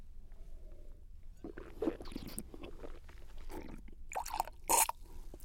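Red wine, a wine chosen to go with lamb, is swished and sloshed in the mouth during a tasting, with soft wet slurping, then spat out in a couple of sharp, splashy bursts near the end. No one speaks.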